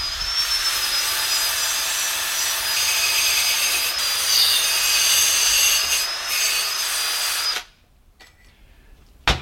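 Loud abrasive whirring of motorized scrubbing as rusty, greasy moped engine parts are cleaned, a steady high whine over gritty friction for about seven seconds before cutting off abruptly to near silence.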